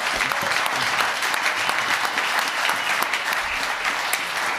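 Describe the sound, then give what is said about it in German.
A crowd claps loudly and steadily throughout, a dense, sustained wash of applause that fills the whole stretch without letting up. “Äh, ich bitte einmal um tosenden Applaus”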